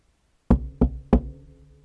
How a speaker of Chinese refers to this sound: 琢磨着，我起身穿好衣服，一口气跑到楼下，站在三楼他家门前，又望了一眼门牌号。深深吸气，便开始敲门。